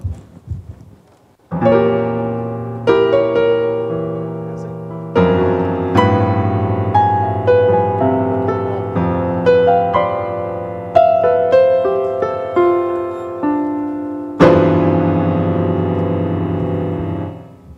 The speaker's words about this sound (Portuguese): O teclado é o mesmo, não é? Ele está desafinado?